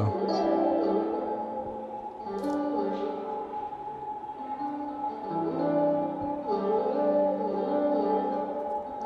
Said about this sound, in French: c'était bien ça, Anna. C'était un dérivé du thérémine qui s'appelle le terpsitone.